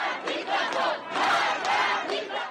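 A large crowd of street protesters in Iran chants and shouts in unison outdoors, paying tribute to Masha Amini and protesting against the police. Their voices swell in rhythmic waves, loud and dense, with no single speaker standing out.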